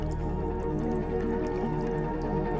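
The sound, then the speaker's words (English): Water drips and splashes steadily, a dense, continuous wet texture with small irregular drops over a low, constant rumble. No voices. “And with that step, the chain falls back into the water. And as you fall with it, the water reforms in just enough time for you to land at the bottom of a flight of stairs.”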